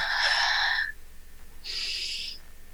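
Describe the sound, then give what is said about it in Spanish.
A voice imitates heavy breathing: two long, breathy airy sounds, a drawn-out inhale-like rasp followed by a pause and a second exhale-like rush, fairly loud, no speech. “Cuidando, y yo le dije a mi abuela, abuela, sentí que, sentí que alguien me estaba respirando al lado.”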